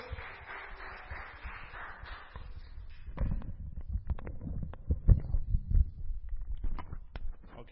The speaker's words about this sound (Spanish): y demos un aplauso